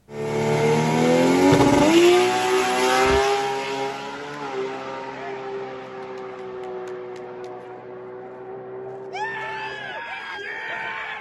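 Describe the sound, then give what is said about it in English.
A Matooks R32 drag race car in Sydney launches with a loud engine roar that climbs sharply in pitch, then settles into a steadier drone as it pulls away on a 219.9 mph pass, with crowd cheering rising near the end. “They uh, went 647, 219.9 mile an hour 219. in their R32 race car.”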